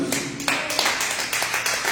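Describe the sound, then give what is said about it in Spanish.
An audience applauds the King of Kings together, a dense, steady wash of many hands clapping with bright, crisp transients and a few sharper accents, sustained evenly for about two seconds. “Den un aplauso al Rey de Reyes, hermanos.”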